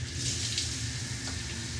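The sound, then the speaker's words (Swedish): An adjustable shower head with several spray settings sprays a steady, even hiss of water for under two seconds, with a low hum running beneath the spray; no one speaks. “Till en som är typ ännu mer regn och så finns det en som är lite mindre...”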